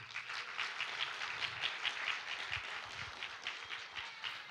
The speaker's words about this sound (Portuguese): Dá uma salva de palmas a Jesus